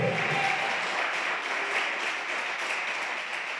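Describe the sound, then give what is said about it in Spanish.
An audience applauds steadily, a dense wash of many hands clapping at an even level for several seconds, with faint voices mixed in beneath the sustained applause. “Denle un aplauso a ese Dios que cambió nuestras palabras, pero también nuestras obras, por Dios santo.”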